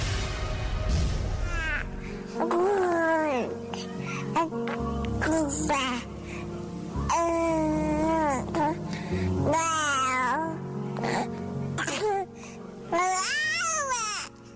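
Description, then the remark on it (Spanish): A baby cries and fusses in a string of loud, wavering wails, each rising and falling in pitch, with short breaths between them and no one else speaking. “Bueno, nuestra historia sonora, no hay un bebé aquí en cabina, les prometo.”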